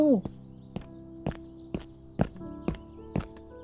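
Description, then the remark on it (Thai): About eight sharp, hollow footsteps thud down stairs at a quick, steady pace as a person hurries down to visitors waiting below, fairly loud, with a brief voice at the start and a sustained tone humming underneath. “แหมไม่ต้องดึงเชิงตัวแม่หรอกค่ะ รีบวิ่งมาขนาดนี้”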